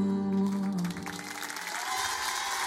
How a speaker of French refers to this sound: Merci. Applaudissements